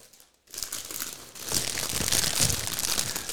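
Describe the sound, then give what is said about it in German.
A bag being crinkled, continuous rustling and crackling that starts after a brief pause and grows busier and louder, with no talking. “Vielleicht habe ich mal überlegt, vielleicht da, wo du jetzt gerade diese äh, Tüten angesprochen hast, wo die herkommen, ne?”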